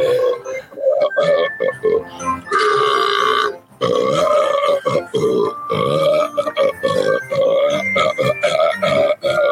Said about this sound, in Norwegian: Jeg søkte, jeg søkte 'Christmas burp' og fikk ikke noe